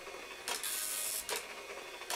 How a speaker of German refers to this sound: Ein recht altertümlicher Drucker, ein neuen Nadeldrucker war das. Okay da laufen halt Nadeln hinter einem Farbband längs, die dann halt auf das